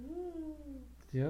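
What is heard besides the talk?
dog barking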